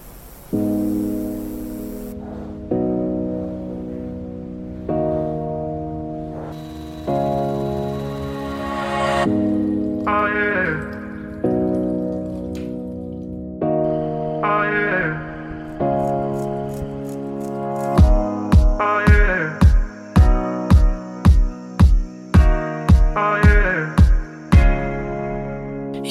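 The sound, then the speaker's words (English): A pop song by a young English female singer plays loud and clear: sustained, shifting synth chords in the intro, then a steady thumping beat with sharp percussive hits kicks in for the final stretch. No one talks over it. “And I think the song of hers that's really close to what a Bond song would sound like is this one.”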